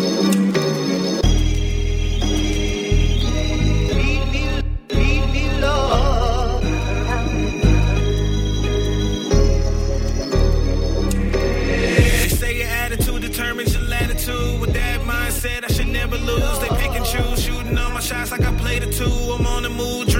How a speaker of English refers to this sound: But uh, let's get into one of his tracks